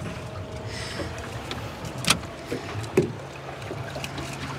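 A small boat being steered moves through water with a steady low rumble and lapping wash, broken by a couple of sharp knocks and splashes against the hull.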